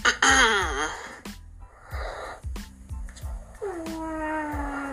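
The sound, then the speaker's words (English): A dog snoring, with rhythmic low snorts and whiny, whistling nasal tones rising and falling over several breaths, fairly loud with no talking. “dog is, of course, snoring in the background.”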